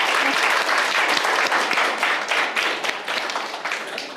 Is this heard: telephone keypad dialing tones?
no